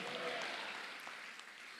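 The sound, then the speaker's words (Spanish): An audience claps for the King of Glory, a dense, steady wash of many hands, fairly loud and continuous with a faint murmur of voices underneath. “Dale palmas al Rey de la Gloria.”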